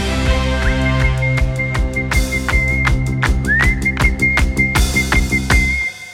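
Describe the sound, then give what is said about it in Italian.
Someone whistles a one-note song, a single sustained pitch over and over, rising into the note each time, over a busy accompaniment of steady percussive hits and a repeating bass line. “La canzone mononota ha avuto i suoi antesignani, uno su tutti Rossini, …, …, è anche facile da fischiettare”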